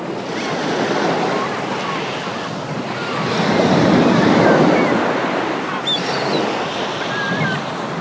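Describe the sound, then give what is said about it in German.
Steady ocean surf washes onto a sandy beach, a continuous rushing hiss that swells into a fuller wave in the middle before easing back. Faint high chirps drift over it, with no talking. “In meiner Fantasie begebe ich mich an einen wunderschönen Sandstrand. Ich habe im Meer gebadet und liege nun ganz entspannt in der wärmenden Sonne”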